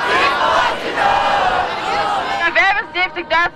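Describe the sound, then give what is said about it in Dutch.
A large crowd of about 75,000 young people, who skipped school to protest for the climate, chants and shouts together in a dense, loud roar, ending in several short rhythmic bursts of a chant called out in unison. “Ze zijn komen protesteren, ze mhm.”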